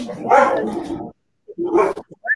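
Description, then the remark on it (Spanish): Loud dogs barking: a long, rough burst of barking, a short gap, then another harsh bark followed by a few quick, higher yips. “Están aventando los perros aquí.”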